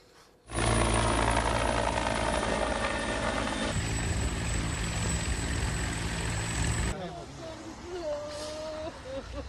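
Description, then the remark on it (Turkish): A rescue helicopter roars loudly overhead during a flood rescue operation evacuating trapped workers from rooftops at an industrial site in Bartın. A dense steady drone of rotor and engine with a high whine, then drops in level near the end as faint voices come through. “Canlarını kurtarmak için çatılara çıkan işçileri tahliye etmek için helikopterle kurtarma operasyonu başlatıldı.”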